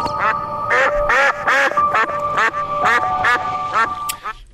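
Ducks quack over and over in a loud, overlapping chorus, harsh nasal calls tumbling in quick bursts, with a steady high tone running underneath.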